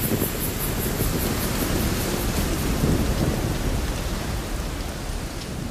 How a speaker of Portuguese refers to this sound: Me escondi debaixo do banco, mas a chuva, ah, como a chuva me molhava.